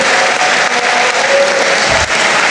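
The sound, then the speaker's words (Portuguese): Sustained crowd applause, a dense, steady wash of many hands clapping at full volume for the whole stretch, with no voices standing out above it. “Então diz aí, Ulisses, sobre as palmas.”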